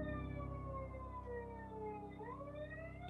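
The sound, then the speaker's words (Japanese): A loud police car siren wails steadily on a highway right beside the room it is heard from, its pitch sliding and dipping about two seconds in, with no voices over it. “ちょうど、うん、あれだねパトカーが来てそう すごいそう僕 僕の部屋の高速道路のすぐそこにあって、めっちゃ聞こえるのよ。”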